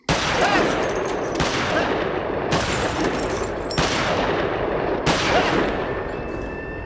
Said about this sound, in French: Que je peux tirer tant que je veux, puis y a personne qui va m'entendre. C'est ce que j'aime encore plus. Il me reste encore une balle.